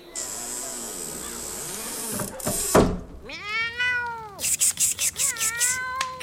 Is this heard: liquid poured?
no